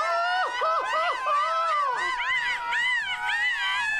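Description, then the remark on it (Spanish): A group of voices lets out loud Mexican charro-style gritos, overlapping high whoops and warbling yells that rise and fall without pause for about four seconds, boisterous. “la Jauría debe gritar como charro”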